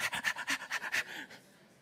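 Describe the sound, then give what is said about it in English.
A voice imitates a dog begging at the dinner table with its head in a lap, panting eagerly: about eight quick, rhythmic breathy huffs, fairly loud, trailing off into a softer exhale. “When I'm eating at the dinner table, I don't have the dog laying his head in my lap going,”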